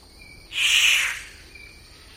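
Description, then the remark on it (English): A single loud, harsh rasping rifle-like call of a Victoria's riflebird bursts out for about half a second through the trees of a forest valley in the Atherton Tablelands, over a faint steady insect buzz. “We'd heard this, the rifle like call that they make through the trees.”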